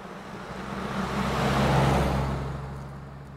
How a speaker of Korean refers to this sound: 소형 트럭으로 시골 지방 도로를 20분 정도 달려서 황폐한 항구로 진입.